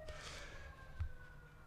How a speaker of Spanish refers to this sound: Con la ambulancia de fondo.